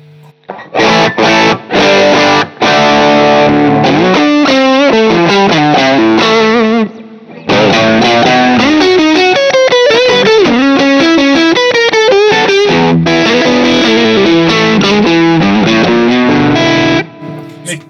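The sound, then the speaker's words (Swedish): An electric guitar pushed through a modded TS9 Tube Screamer overdrive pedal into an amp plays loud, gritty chords and single-note runs, pausing briefly midway before continuing and then stopping near the end. “Så där låter ju inte en vanlig Tube Jo, och så där tycker jag, men så där, det där är ju det en Tube Screamer gör bäst. Att nu ja. distar den ju stärken liksom.”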